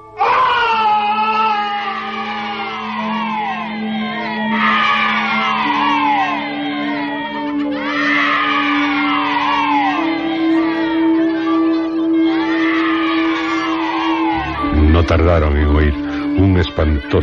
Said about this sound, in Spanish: alarido, seguido de un escalofriante griterío infantil.